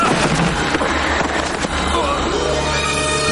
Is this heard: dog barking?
no